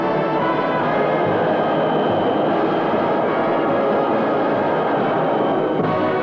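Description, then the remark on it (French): A rubber-tyred Paris Métro train runs steadily on bogies of four tyres rolling on a concrete track beside the rail, with horizontal guide wheels, giving a dense, continuous rumbling roar with a broad hiss on top, loud and unbroken throughout with no voices. “Les roues de fer seront dorénavant remplacées par des bogies de quatre pneus roulant sur un chemin bétonné établi à côté du rail, tandis que quatre roues de guidage placées à l'horizontale maintiendront la direction de la rame.”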